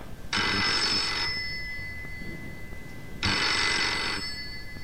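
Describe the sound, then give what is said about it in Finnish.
A telephone rings twice, each bright electronic trill lasting about a second with a pause between, loud over a quiet background. “Nyt soittaa.”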